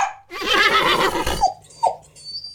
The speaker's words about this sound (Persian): حیات قلعه صدای چند اسب و زوزه چند تا سگ شنیده میشد